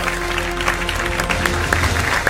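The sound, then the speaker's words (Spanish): Steady audience applause fills the whole stretch, a dense wash of many hands clapping at a fairly loud, even level, with a low hum underneath and a few sharper claps popping out. “Vamos, aplausos.”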